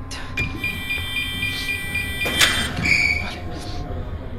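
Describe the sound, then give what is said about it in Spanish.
A mechanical door of a room slides open with a sharp whoosh midway, set against a steady low hum and thin electronic tones, with faint voices in the background. “Voy a abrir la puerta de esa habitación.”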